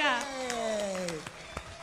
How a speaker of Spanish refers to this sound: También hay aplausos, también hay aplausos, claro que sí.